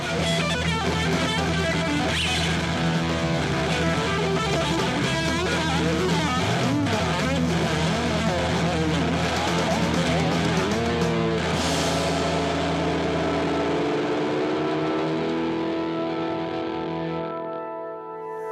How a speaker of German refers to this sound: hier ist die Orgel